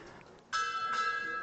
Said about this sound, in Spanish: toque de campana.